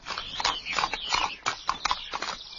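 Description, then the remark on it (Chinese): Horse hooves clip-clop at a steady walking pace, a run of sharp, evenly spaced clops with a slight shuffling quality, as a horse-drawn cart with no one driving it moves along a road toward where people are chopping firewood. No one speaks. “马车。继续朝着人们砍柴的地方走”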